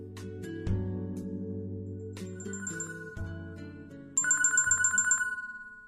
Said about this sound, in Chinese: 这时手机响了